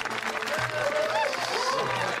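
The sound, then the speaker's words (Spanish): A crowd claps steadily for a couple of seconds, a dense, even patter of many hands, with a few cheers or whistles rising through it. “Un aplauso, por favor.”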